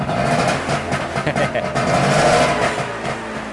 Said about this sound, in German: das ist das Knattergeräusch eines Zweitaktmotors und zwar von einem Trabant